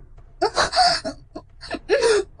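A woman's soft, breathy moans come in several short wavering bursts with gasping breaths between them, rising and falling in pitch, with no speech.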